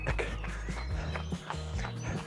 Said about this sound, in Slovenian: In čas je, da stečemo. Tak, tak, tak, tak. Drobni koraki. Visoki smo, visoki smo, sproščena ramena in hitro stopimo dal, dal, dal, dal.